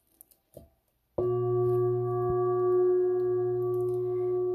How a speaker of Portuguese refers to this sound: Você pode continuar fazendo esta técnica de respiração enquanto eu vou dar um toque no meu sino tibetano, especialmente para você.